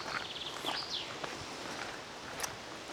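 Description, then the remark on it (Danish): Footsteps crunch steadily as people walk along a forest path on a windy day, with a constant rustle of wind in the microphones, a few bird chirps in the background and no one speaking. “Ja, og vi går jo her i skoven, og det blæser lidt, så der kommer sådan lidt vind i mikrofonerne en gang imellem.”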